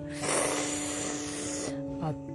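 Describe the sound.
A voice mimics a crane slurping soup from a tall, narrow jar with its long beak: a single long, airy sucking draw lasting over a second, fairly loud, trailing off into a brief voiced sound.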